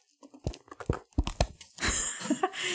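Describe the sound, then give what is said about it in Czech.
Paper advertising leaflets fall onto a person and crinkle, a run of sharp crackling rustles followed by a longer, denser scraping rustle as the sheets settle, with no voices. “Niečo na mňa vypadlo, nějaké reklamné letáky.”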